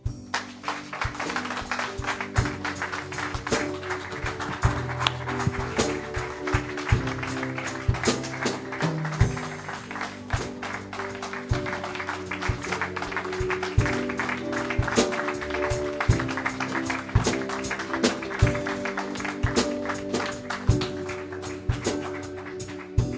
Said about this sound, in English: Let's give the Lord Jesus Christ a clap offering.